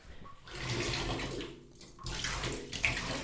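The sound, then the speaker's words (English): Bubble bath pours steadily into a filling bathtub of water, a continuous splashing rush with slight dips and swells over a few seconds. No one speaks. “All right, now pouring in some bubble bath.”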